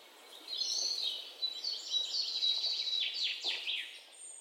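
Birds chirp continuously for a few seconds, a busy mix of quick, high tweets and trills at moderate-to-soft volume, with no voices over them.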